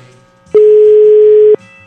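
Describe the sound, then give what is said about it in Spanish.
A loud, steady telephone tone sounds once for about a second, starting and stopping abruptly, with only faint background noise before and after, as a phone call is placed live on air. “Eso que me dijo este vato, a ver si me lo responde aquí por teléfono, en vivo, y a todo color, y al aire.”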